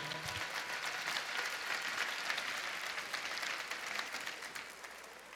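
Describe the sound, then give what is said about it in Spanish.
An audience at a children's congress claps steadily for about five seconds for the children who received tablets as prizes, a dense, even wash of many hands with no voices on top, fading only slightly at the end. “Así que un aplauso para todos los niños que recibieron su tablet.”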